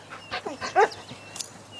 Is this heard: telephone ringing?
no